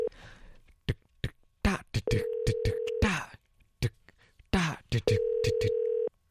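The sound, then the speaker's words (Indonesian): A string of quick telephone dialing beeps and clicks as a call is placed to a DJ, then two long, steady ringback tones about a second each with a short gap between, fairly loud, and no voices. “kalau gitu mungkin um, langsung kita sambungkan sama DJ yang baru yuk ya, kok terbata-bata mas yuk kita telepon oke okay.”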